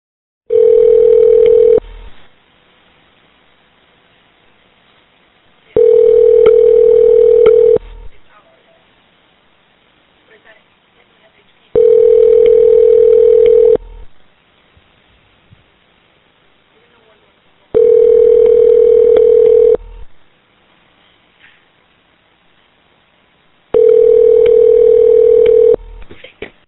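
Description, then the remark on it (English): After a call with a Sheriff's Office dispatch center is disconnected, a telephone line tone sounds five times, each steady mid-pitched burst lasting about two seconds, with roughly four seconds of near-silence between them in a regular, repeating pattern. No one speaks. “We got disconnected or something.”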